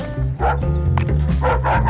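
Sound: dog yapping outside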